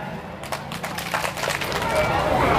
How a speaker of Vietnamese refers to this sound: thì hãy dành một tràng vỗ tay thật lớn để cam kết